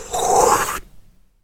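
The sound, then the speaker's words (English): A voice imitates the breathing sound effect of fire in a Ron Howard film: a single loud, breathy, roaring exhale lasting under a second, rough and hissy, cutting off abruptly into silence. “They have the sound effects that go with it, where it's breathing and it goes,”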